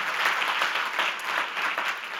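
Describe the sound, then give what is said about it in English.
A crowd applauds the ushers and hosting teams who serve on a Sunday, a dense wash of many hands clapping at a fairly even loudness throughout, with no voices standing out. “Uh, can we give those, uh, our, our ushers and our hosting teams, just a round of applause?”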